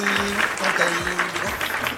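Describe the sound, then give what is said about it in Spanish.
A circus applause sound effect: a dense, steady burst of crowd applause, many hands clapping in a continuous crackle. Low sustained tones and a few swooping notes run underneath throughout. “Aplausos de circo.”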